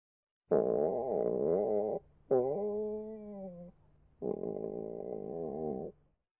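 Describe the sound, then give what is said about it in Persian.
Three long, rumbling stomach growls from hunger, each a gurgling, wavering drone of about a second and a half with short pauses between, loud, with no talking. “این صدای شکم من نبودا اتفاقا مال منم نبود خب در زبان ژاپنی ما این نام آوا رو وقتی استفاده میکنیم که شکم قارقور میکنه”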